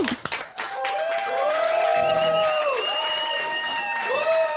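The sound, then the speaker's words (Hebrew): A loud burst of applause mixed with crowd cheering and rising, sliding whoops, sustained steadily for several seconds after a few sharp opening claps. “וואו, אני מצפה עכשיו לחיות כפיים שם, מי שיושב באוטו, מטגן שניצלים, וואו!”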